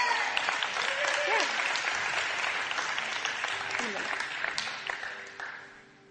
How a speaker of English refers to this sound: Turn around. I just want you to applaud this mother of five.